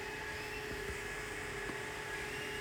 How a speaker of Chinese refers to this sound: 这隔壁吹头发我们都能收进去啊！隔壁在吹头发，我估计他现在也能听见我说话